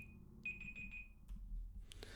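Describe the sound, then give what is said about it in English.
A timer alarm beeps, first as a steady high tone and then as a quick run of about four electronic pulses, before cutting off into faint rustling. “Let's make sure that timer is turned off.”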